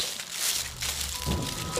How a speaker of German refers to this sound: Wenn sich ein Gang über ein Feld so anhört